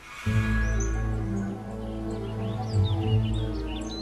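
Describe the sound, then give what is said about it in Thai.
A bird chirps and calls repeatedly in quick, high, sweeping notes in a forest, heard over a steady low humming drone that fills the background throughout. “เสียงนกกระไหนมันบอกว่ามีคนเดินผ่านมาทางนี้”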